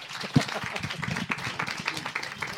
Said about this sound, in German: Danke euch, dass ihr da wart. Vielen Dank. Ein Applaus